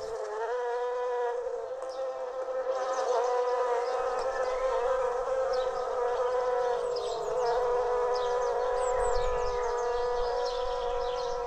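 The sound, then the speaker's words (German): A dense, steady hum of beekeeper Christian Beham's honeybees buzzing around a hive, a continuous droning swarm with layered tones and shifting wingbeats, fairly loud, with no voices. “Da muss der Imker aufpassen, dass die Tiere nicht schwärmen.”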